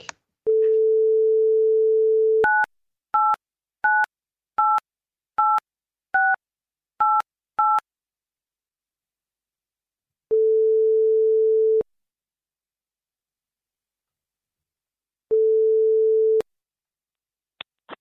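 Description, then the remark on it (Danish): A steady dial tone gives way to a quick run of about eight keypad dialing beeps, then two long, even ringback tones sound with a lengthy silent gap between them, as Radio 4 calls TV host Mohammed Habane. No one speaks. “Jamen, så ringer vi da til ham. Ring ham op, tak.”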